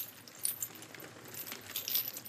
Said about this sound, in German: Die Geräusche aus der Dunkelheit klangen wie das Rasseln einer Kette, die an Steinen entlang gezogen wird.